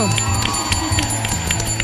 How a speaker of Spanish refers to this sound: Para esto tenemos a dos personas talentosísimas. Obvio que ha vuelto … y se une …. Fuerte el aplauso.